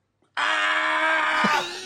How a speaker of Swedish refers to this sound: Först är det där skriket när Chris Härenstam för in pinnen i näsan på honom